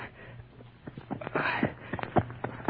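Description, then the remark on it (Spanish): A horse's hooves clop along at an uneven walking pace, a series of dull knocks over a low steady hum, fairly quiet, with no voices. “Pero no puedo dejar el caballo aquí porque me callan.”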